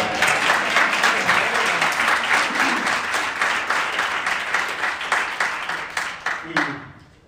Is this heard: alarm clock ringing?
no